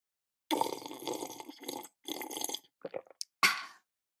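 Loud slurping of coffee from a cup, a few long noisy sips broken by brief pauses, then a couple of short gulps and one final sharp slurp, with no talking.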